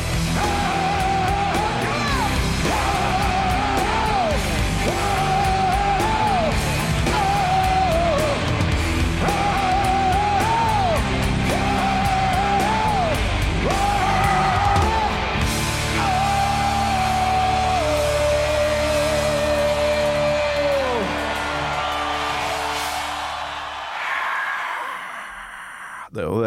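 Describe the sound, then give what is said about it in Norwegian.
A huge concert crowd sings a repeated chant-like melody in unison over a roar of cheering, ending on a long held note before the noise fades away. “Nå kommer jo det herre eh, folkehavet. Vi må høre litt på det.”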